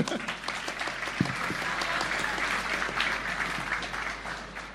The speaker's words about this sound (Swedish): Oj! Applåd!